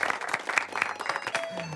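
A short burst of applause, many hands clapping in a dense, crackling patter that stays fairly steady, with a faint tone and some low hum underneath near the end.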